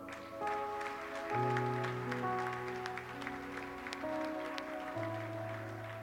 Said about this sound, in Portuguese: Aplauda o Senhor.